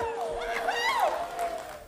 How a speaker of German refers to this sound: Ja, Jubel also in Mainz.